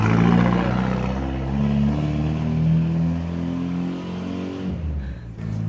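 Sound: car driving past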